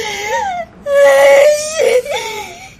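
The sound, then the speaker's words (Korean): A drunk woman sobs and wails while testifying at a divorce court hearing, her voice rising and breaking in a few drawn-out, quavering cries with short catches of breath between them. “두 번째 변론기 일에 아내는 만취한 상태로 출석했고 진술 도중에 울음을 참지 못해 눈물을 흘리다가 이렇게 소리쳤다.”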